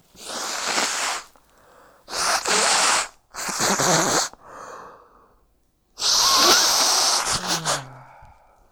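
A person snorts forcefully through the nose four times, loud, hissy bursts of air with short pauses between them and fainter breathy puffs in the gaps. No talking.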